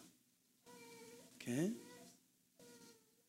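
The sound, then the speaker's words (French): A baby in the audience cries, with a few drawn-out wavering wails. The loudest cry rises sharply in pitch midway through, followed by a softer whimpering sob. “C'est un bébé, c'est des choses que les bébés font, c'est bon?”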